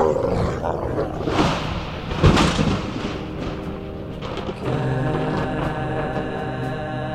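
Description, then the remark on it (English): Wolves growl and snarl loudly, a rough, continuous chorus of several animals, with a sharp snapping burst partway through before settling into a steadier rumbling growl. “Nice wolf. Uh, wolves? Oh, hell.”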